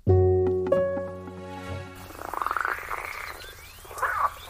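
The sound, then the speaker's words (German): Frogs croak in a rapid pulsing chorus at Lake Titicaca in South America, starting with a loud, low, droning call that gives way to fluttering, rhythmic croaks and occasional sharper chirps, with no voices. “Diese Frösche sind bedroht, zumindest dann, wenn sie am Titicacasee in Südamerika leben.”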